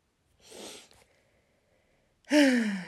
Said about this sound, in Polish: ja potrzebuję takiego przystanku, wiecie, żeby wziąć głęboki oddech.